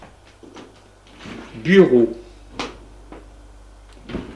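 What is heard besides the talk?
door opening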